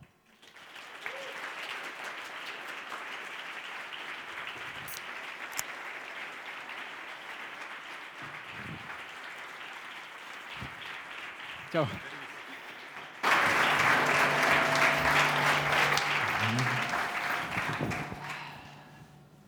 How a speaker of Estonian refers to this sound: ja see, sellise väikse sissejuhatuse saatel ma palun päriselt südamlikku, aupakliku au, austusega välja teenitud suurt aplausi